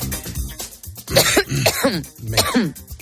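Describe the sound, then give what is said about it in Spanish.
A loud coughing fit during a live radio broadcast: several harsh, rasping coughs in quick bursts with brief gasps between, some throat-clearing mixed in, and no one speaking. “y espera, voy a toser.”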